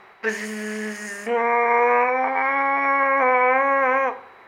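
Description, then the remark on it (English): A voice imitates a mosquito's whine: a steady, nasal buzzing tone held for about four seconds, rising slightly after a brief break, then cutting off. “Mosquitoes! It's one of the plagues of where people come to spend their summers, worse than the tortures of the Inquisition.”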